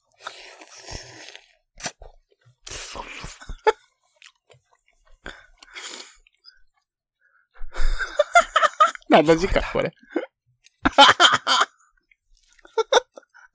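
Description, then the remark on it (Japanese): Wet slurping of cup noodles bought in Osaka in several noisy bursts, with chewing and mouth sounds in between; a voice briefly speaks and laughs between the slurps, during a radio recording. “私が麺すする音聞けて嬉しいでしょう。”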